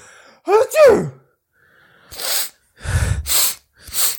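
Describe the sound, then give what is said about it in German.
A drawn-out, rising voiced inhale, then a pause and four sharp, breathy sneezes in quick succession, fairly loud, with no talking. “Also da niest man sich zu ja, Tode.”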